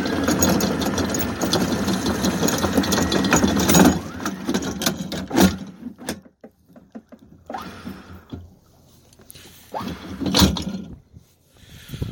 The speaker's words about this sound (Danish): Så har vi lettet ankeret her. Det er på vej det sidste stykke op.